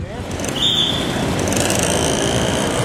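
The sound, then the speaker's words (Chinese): A steady wash of busy, jammed street traffic, with buses, cars and motorcycles rumbling together and a brief high squeal, like brakes, rising above the dense, continuous roar. “马路上塞满了公车、汽车和机车，街道上人挤人，脸上都没有笑容。”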